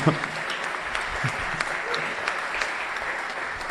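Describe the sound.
Audience applause, a dense, steady clatter of many hands clapping at once, sustained at an even level throughout with faint voices mixed in.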